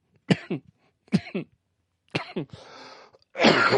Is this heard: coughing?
yes